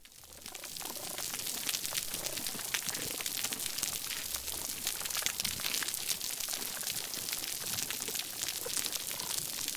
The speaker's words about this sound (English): Let's listen again to that healthy coral reef that we started with.